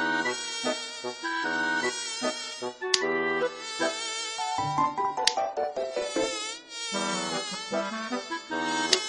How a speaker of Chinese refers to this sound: 可是，有几只讨厌的蚊子围着他转。